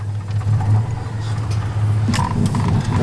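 The small engine of a Citroën 2CV idles with a steady, low droning hum, fairly loud, with a few brief higher whirring and clattering bursts toward the end.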